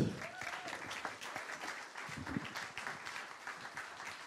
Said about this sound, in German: Geben wir einen herzlichen Applaus